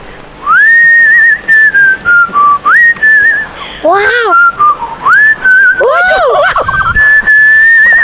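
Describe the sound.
A person whistles a melodic tune in clear, sustained notes with smooth pitch slides, close and fairly loud, briefly interrupted by a short exclaimed word partway through.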